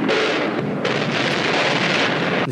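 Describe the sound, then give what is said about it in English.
A dense, roaring barrage of bombardment and gunfire over Baghdad, Iraq, at the start of the Shock and Awe aerial bombing campaign on March 21st, as captured on TV. It is loud and unbroken for the whole stretch, with blasts blurring into one continuous rumble and no voices. “The first bombs began to scream over Baghdad, all captured on TV, of course”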